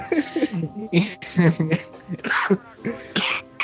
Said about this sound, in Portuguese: Fiquei até com tosse, mas enfim.